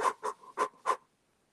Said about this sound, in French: Alors, c'est marrant de votre côté, j'entends un petit bruit là, comme une sorte de soufflement désagréable. Je suis essoufflé, d'avance.